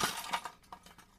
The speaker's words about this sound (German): Da sind zwei. Ich schüttel, bis Alle. eins runterfällt. Jetzt ist eins runtergefallen.